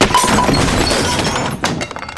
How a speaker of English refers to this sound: And I dropped everything. Ah! Baby with a mustache, the stuff you dropped has knocked over everything in here the tables, the chairs, the TV! It's, it's ruined.